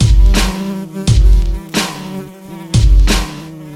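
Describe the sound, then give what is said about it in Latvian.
A fly buzzes loudly in a steady, droning hum, broken by four sharp thuds spaced about a second apart, with the buzz flaring up after each one. “Viena muša nokrita augšpēdas un tirināja kājas.”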